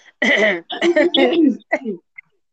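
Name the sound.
coughing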